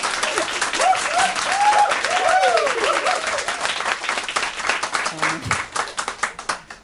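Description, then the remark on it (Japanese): An audience at a live show at the Loft breaks into steady applause, many hands clapping in a dense rattle that thins toward the end into scattered individual claps. Voices and laughter rise briefly over the clapping early on. “何の拍手”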